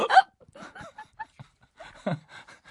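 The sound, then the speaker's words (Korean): A person mimics the hiccups of a man leaning against an elevator wall, a loud sharp gulp at the start, then a scatter of softer clipped bursts and another strong hiccup near the end. “딸꾹질을”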